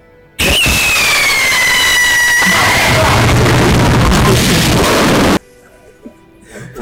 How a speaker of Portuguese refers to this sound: Isso aí é um é foguete